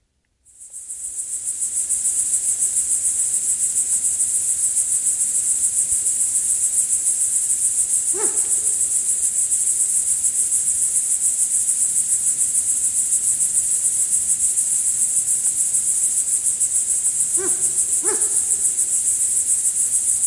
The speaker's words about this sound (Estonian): täna aga jääb loodushäälte lõiku lõpetama augustiõhtu ritsikasirin koos händkaku huigetega